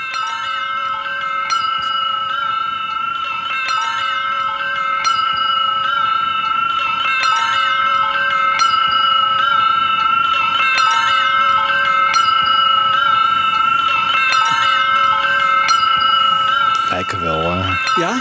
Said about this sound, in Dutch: Ja, van die dingen die aan de deur hangt. ik wel, van die wind, eh, wind chimes. Ja. Ja. zo klinkt het.